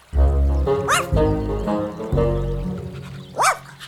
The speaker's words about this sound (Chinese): 过了一会儿，有一只汪汪小狗走过来了。